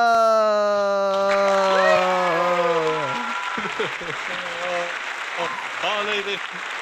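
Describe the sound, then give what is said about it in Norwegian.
An audience of a couple hundred people in the room claps and applauds steadily, a dense wash of hand claps mixed with cheering voices, loud at first with sung or shouted tones before settling into lively clapping and chatter. “Fy, ja, og så glemte jeg å nevne da, at jeg har massevis sånn av publikum bak meg eh, på rommet nå, liksom. Et par hundre oh, stykker.”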